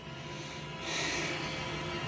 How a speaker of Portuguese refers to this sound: Surge uma pequena pausa entre eles, na qual ouço a respiração um pouco pesada de um deles.